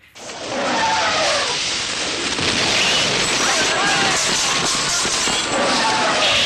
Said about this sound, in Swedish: Och så är det massa, massa ljus och massa ljud. Ja, det, det låter som en, en, en elefant. Ja kan ju slänga in ljudet här så får ni höra hur det låter när spindeln dödar mm. folk.